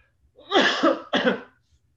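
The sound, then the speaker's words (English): Two harsh coughs in quick succession, the first drawn out and rough, the second shorter, with no talking around them. “as I'm coughing my lungs out”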